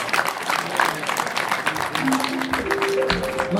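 Loud, steady applause from a large crowd in Piazza Chanou as an honoree makes his way forward, a dense wash of clapping throughout, with a faint voice surfacing beneath it toward the end.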